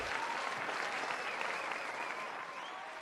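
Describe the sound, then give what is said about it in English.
A steady burst of applause from a crowd, dense clapping that stays loud and even for about three seconds, with no voices over it. “Oh, so let's give you that clap too,”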